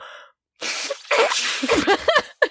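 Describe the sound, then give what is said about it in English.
A voice tries to imitate an elephant's trumpet, producing a breathy, hissing blast that breaks into a few squeaky, wavering tones for about two seconds. “Oh, let's see if I can do the elephant noise.”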